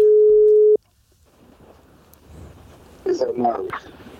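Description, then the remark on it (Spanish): A single loud, steady telephone ringing tone plays for under a second and cuts off, followed by faint background murmur and then a voice starting to talk. “Sí, le he dicho que le voy a llamar. Le he dicho, oye, ¿te puedo llamar?”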